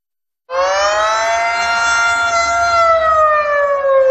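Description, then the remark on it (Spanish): After a brief moment of silence, an air raid warning siren in Ukraine, warning of bombings, starts up and wails loudly and steadily, its sustained tone sagging slightly in pitch. No voices are heard. “Por desgracia, son las sirenas que en Ucrania avisan de los bombardeos que han causado el desplazamiento de millones de personas, la mayoría mujeres y niños.”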